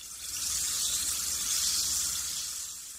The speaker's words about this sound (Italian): inventò una pastiglia che, inserita in un bicchiere d'acqua, diventava una bibita gasata.